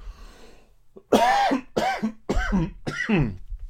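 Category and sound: human body sound, coughing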